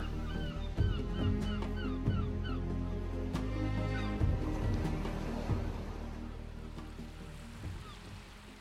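Seagulls cry over and over in a dense, overlapping chorus of shrill, wavering calls, flying above the boat La Canopée as it glides across the Indian Ocean away from the island of Mayotte under a blue sky, with a steady low rumble of the boat and the wash of water.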